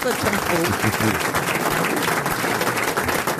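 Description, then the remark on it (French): A group applauds steadily for about three seconds, a dense, loud, continuous patter of many hands clapping, with a few voices mixed in underneath. “On n'applaudirait pas,”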